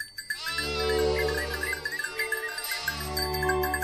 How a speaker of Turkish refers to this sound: Ah, bir kuyu başı. Ne kadar da çok koyun varmış buralarda.